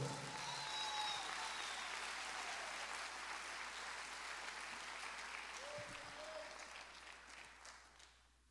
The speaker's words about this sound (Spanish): Si lo cree, déle el mejor aplauso, Señor, entonces.